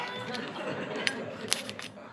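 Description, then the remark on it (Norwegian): A knife cuts open a package, with steady rustling and scraping broken by two sharp snipping pops as the material gives way. “Og så fant jeg ikke saksa, så jeg måtte låne en kniv”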